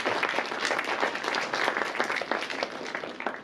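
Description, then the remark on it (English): A crowd applauds the media team steadily, many hands clapping in a dense, continuous patter that stays fairly loud and even throughout, with no voices standing out. “hey, y'all, let's give uh, our, teach, our, our uh, media team a hand today.”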